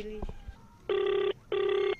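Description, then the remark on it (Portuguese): Two steady electronic ringback tones of an unanswered phone call to a kidnapping victim in Beira, each about half a second long, separated by a short pause, heard loud and clear after a brief bit of faint background noise. “Por telefone, a nossa reportagem na Beira também tentou contactar a vítima sem sucesso.”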